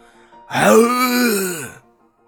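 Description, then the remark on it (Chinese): A man gives a single loud, sustained vocal roar, shouting with all his strength at a black bear. It lasts over a second, with a strained, throaty tone that rises then falls away, and no words are spoken. “我跑了几步就停下来，狠狠的瞪着黑熊，又用尽力气发出怒吼。”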